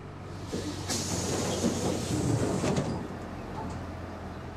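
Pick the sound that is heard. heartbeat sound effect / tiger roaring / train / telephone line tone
train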